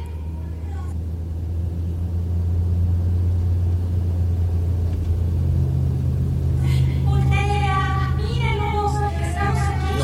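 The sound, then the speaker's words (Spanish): A car's engine rumbles low and loud as it comes fast along the road at one in the morning, swelling early on and staying heavy, with indistinct voices rising over it near the end. “Ese carro sí que viene deprisa.”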